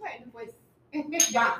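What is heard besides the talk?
glasses clinking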